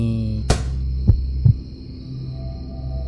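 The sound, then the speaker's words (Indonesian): A ball drops with a sharp thud, then bounces twice more with softer, quickening thumps, all over a steady low electrical hum in an otherwise quiet room. “Hah, sepertinya tadi aku mendengar sesuatu. Itu oh, cuma bola jatuh.”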